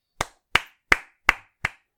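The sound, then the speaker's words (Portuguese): Six sharp hand claps in a steady, evenly spaced rhythm, crisp, like one person clapping alone with no voices over them. “Pá, queria pedir uma hum, salva de palmas, espera aí, espera aí.”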